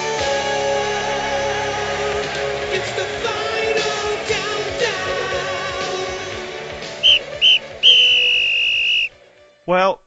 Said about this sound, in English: that's it. That's the uh, referee's full time whistle.